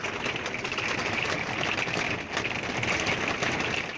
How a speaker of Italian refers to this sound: perché veramente la grandine in camper è una cosa che chi non l'ha vissuta non, non, credo se lo possa immaginare e per aiutarlo voglio far sentire cosa si sente da dentro il camper.